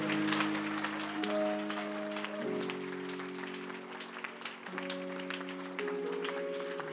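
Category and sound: crowd, audience clapping hands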